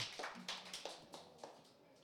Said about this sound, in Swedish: En stor applåd!